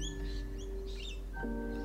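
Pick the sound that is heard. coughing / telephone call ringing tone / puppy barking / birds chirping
birds chirping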